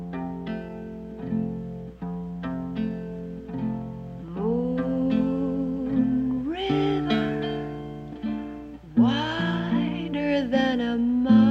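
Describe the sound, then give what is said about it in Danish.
A woman sings a slow, gentle ballad from a film in long, held notes that glide between pitches, with soft accompaniment underneath, clear throughout. “Og den synger Audrey Hepburn selv i filmen, og det lyder sådan her.”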